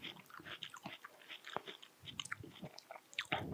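Wet biting and chewing of juicy watermelon, with irregular crunchy, slurpy mouth sounds repeating steadily for a few seconds, no talking.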